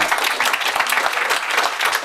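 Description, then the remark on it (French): A crowd claps steadily for four guests at the end of a debate, a dense patter of many hands sustained at an even loudness throughout, with no voices standing out. “Euh, ben, on peut vraiment les applaudir parce que nos quatre invités.”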